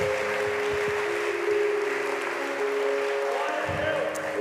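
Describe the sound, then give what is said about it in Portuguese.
A church audience applauds the Lord Jesus after a sermon. The dense clapping fills the whole stretch at a fairly loud level, while a sustained keyboard chord holds underneath and a few voices murmur. “Se você crê e concorda com essa palavra, aplaude o Senhor Jesus mais uma vez.”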